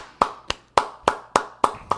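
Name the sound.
hands clapping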